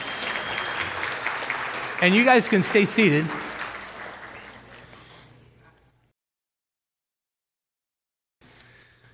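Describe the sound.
A crowd claps in a steady, dense wash of applause that fades out over several seconds into silence, with a person speaking briefly over it partway through.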